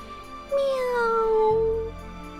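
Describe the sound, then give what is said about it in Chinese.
A single drawn-out cat meow, about one and a half seconds long, starting higher and gliding gently downward in pitch, heard on its own over a faint background hum. “小老鼠还想去吓唬青蛙，刚走到水稻田边，还没吹哨子，只听到背后有猫叫。”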